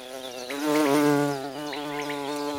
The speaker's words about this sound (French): Bombus terrestris est ce gros bourdon noir avec des bandes oranges et un cul blanc. C'est un apidé de la même famille que les abeilles à miel.